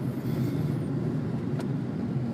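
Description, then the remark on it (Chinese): The engine of a used Ford Focus revs, droning with a steady, dense low rumble and a thin high whine fading early on, holding an even loudness throughout with no speech. “一般来说是小排量，你到踩到四千转总会有种乱七八糟的声音，但是这个声音感觉，你怎么看？”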